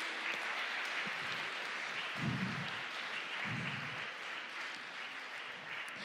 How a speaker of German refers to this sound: Lasst uns Ihnen nochmal einen Applaus geben.